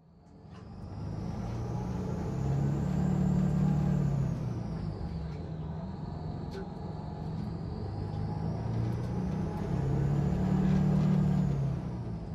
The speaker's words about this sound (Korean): 산들이와 내가 앞쪽에 자리를 잡자 버스가 곧 출발했다